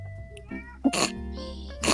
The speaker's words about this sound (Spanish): Escucho mi gato de fondo y yo digo, se va a escuchar en el podcast.